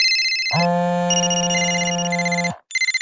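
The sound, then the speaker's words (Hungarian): A mobile phone rings while driving, with a bright electronic ringtone, a sustained buzzing tone layered with high chirping notes, then a brief pause before the melody starts again. Loud, no voices. “Ugye milyen rossz, ha vezetés közben csörög a mobil, és nincs kihangosítója?”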